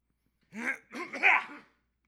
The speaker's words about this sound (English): Hold on a second. I gotta clear my throat.